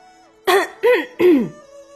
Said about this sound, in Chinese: 说着，清了清嗓子